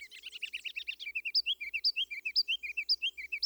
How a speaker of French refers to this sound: un son perçant me sort de ma tête. Un chant fort, très proche. Dans le prunier, à quelques mètres de moi, un oiseau minuscule, qui peut absolument pas émettre un son d'une telle puissance.